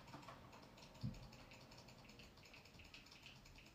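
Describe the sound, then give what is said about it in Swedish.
Rapid computer mouse clicking, a quick, steady patter of small clicks running throughout at low volume, with one slightly louder knock near the start and no voices. “Det är bara jobbigt, annars kommer jag spanna musen så det blir det här ljudet.”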